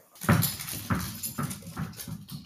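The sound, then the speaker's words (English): A dog plays boisterously with a tennis ball that takes up her whole mouth, with a series of about four thumping bounces and scuffles roughly every half second, and nobody speaking. “Our dog has discovered tennis balls, which is pretty fun to play with her, but it's very loud.”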